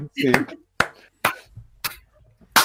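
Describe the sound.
Five sharp, slow hand claps ring out loud at uneven intervals, like a seal clapping, with a brief vocal sound blended into the first clap.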